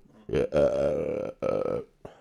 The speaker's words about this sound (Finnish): Ja röyhtäily.